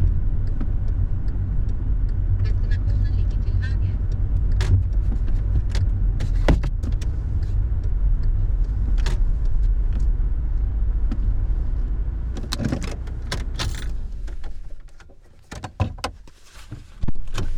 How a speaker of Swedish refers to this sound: parkerar vid det hus som han ska flytta ifrån om några dagar då flyttlasset går tillbaka till Skåne.